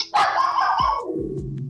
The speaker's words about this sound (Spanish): Y ahí tenemos los ladridos perros unas páginas después,